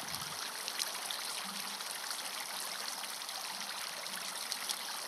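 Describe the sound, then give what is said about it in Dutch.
Water flows and splashes steadily from a fountain, droplets spattering back up as they hit the water surface, a continuous bright rushing patter, moderately loud, with no voices. “zie je de fontein. Je ziet het water stromen. Druppeltjes spatten weer omhoog als ze het wateroppervlak raken.”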